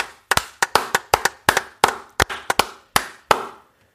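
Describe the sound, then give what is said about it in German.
A short burst of hand clapping, about a dozen sharp, crisp claps in a loose, slightly uneven rhythm, like one or two people applauding in thanks to the organizer of a prediction game, then abrupt silence. No voices. “Danke der Applaus hier ist für dich.”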